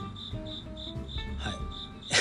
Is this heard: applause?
no